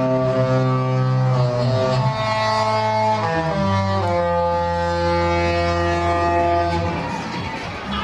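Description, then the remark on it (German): A loud, deep horn of the cruise ship Disney Dream, sailing to the Bahamas, plays a sustained melody, its rich harmonic tones stepping from note to note over about eight seconds with no talking. “Die Disney-Helden, die sind nämlich hier die die Hauptdarsteller auf diesem Schiff auch im Schiffshorn.”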